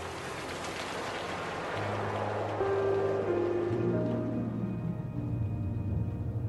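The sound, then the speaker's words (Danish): A steady, dense hiss of rain falling without pause, with low sustained droning tones underneath and a faint high ringing that fades in later. No one speaks. “Tobias Målort venter tilbage, alene i regnen,”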